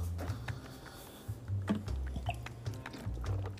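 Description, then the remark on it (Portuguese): Someone drinks water that was a bit old: a series of soft gulps and swallows with small wet clicks, fairly quiet and steady, with no talking. “Essa água tava meio velha.”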